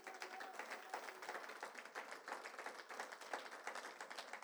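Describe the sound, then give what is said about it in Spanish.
An audience applauds for the Lord in a steady, dense wash of many hands clapping, sustained at an even level for several seconds with no voices rising above it. “¿Puede darle usted un aplauso al Señor, hermanos?”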